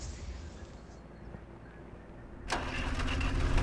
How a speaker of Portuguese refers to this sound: Ele vem vindo embora com o trator na, na estrada.